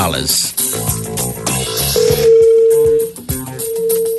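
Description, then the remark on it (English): Telephone dialing tones as a prize-money call is placed, over a busy background of music: a steady, fairly loud tone holds for about a second, breaks off briefly, then sounds again near the end. “And now we got to make someone's day with a little bit of money call.”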